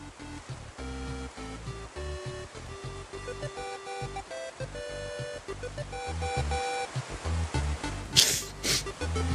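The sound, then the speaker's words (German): A single sharp, loud sneeze from a person with a cold bursts out near the end, over a bright, beeping electronic melody from a video game being played throughout. “Muss ja niesen irgendwie ist das äh, suboptimal, wenn man erkältet podcastet.”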